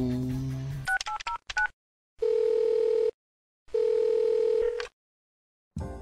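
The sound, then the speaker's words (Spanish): A quick run of touch-tone dialing beeps, then two long, steady telephone ringing tones separated by silence, clear, as a call to a radio station's phone line connects. “Estás llamando a la línea telefónica de Anime Nexus.”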